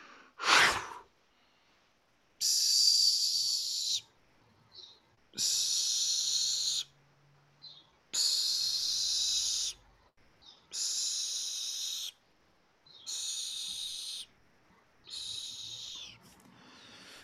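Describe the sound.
A voice demonstrates a single-breath exercise, imitating air escaping from a balloon whose nozzle is opened and closed, with a breathy hiss after an opening puff, in six even bursts of about a second and a half, each cut off by a short pause. Fairly loud.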